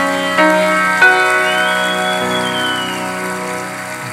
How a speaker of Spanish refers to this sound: En el nombre de Jesús, el que lo cree, de un fuerte aplauso al Señor.